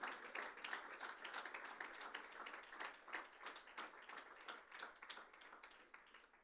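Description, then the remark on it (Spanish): A church audience bursts into sustained applause for the Lord, many hands clapping in a dense, steady crackle that holds at an even loudness for several seconds, with faint voices mixed in. “Eso es, que ese fuerte aplauso sea para el Señor.”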